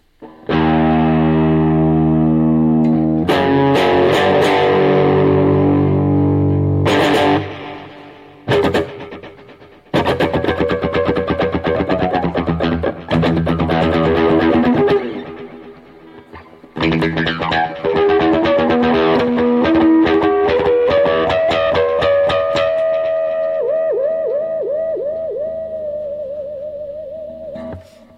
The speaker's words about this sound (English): And then we got the, the mono delay. Oops. And then we have a stereo delay as well. Like that.